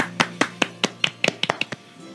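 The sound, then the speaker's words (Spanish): A short burst of applause: about a dozen sharp hand claps from one or two people, quick and slightly uneven, fading out after a couple of seconds with no talking. “Aplausos.”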